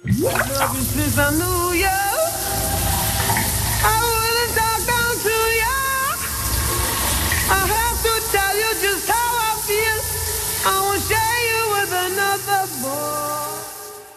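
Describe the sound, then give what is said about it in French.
Water from a shower runs in a steady hiss the whole time, while a voice sings a wavering melody loudly over it. “vous le savez, chanteur, chanteuse qui chante sous la douche.”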